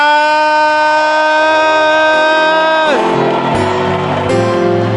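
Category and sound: crowd, audience clapping and shouting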